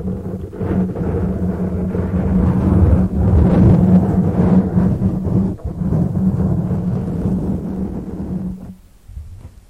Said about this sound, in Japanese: どうですか今のはマイクスポンジまあマイクのスポンジみたいのつけてあるんですけどそれを直接触ってみましたすごい感度ですねすごい感度だからうるさかったでしょう